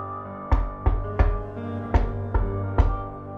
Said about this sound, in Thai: ขณะที่ลุงทองดีกำลังหลับอยู่ จู่ๆก็ได้ยินเสียงเคาะประตูดังขึ้นจากหน้าบ้าน